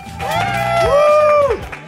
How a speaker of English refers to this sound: Do the applause, do the applause.